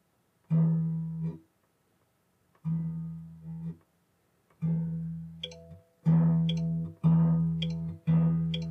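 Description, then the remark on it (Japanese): A freshly changed guitar string plucked six times with pauses between, each note ringing with a buzzy, twangy sustain before fading, the last few coming in quicker succession. No one speaks. “こんなブーンって言うっけあ、弦書いただけでこんな音違うのこんなブーンって言うっけあれ あれ今ちょっとカルチャーショックを受けてる。”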